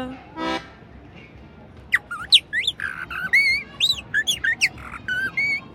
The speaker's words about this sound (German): Wisst ihr eigentlich, was das für ein Vogel ist? Das ist doch die Amsel. Um fünf in der Früh pünktlich fängt die Amsel an.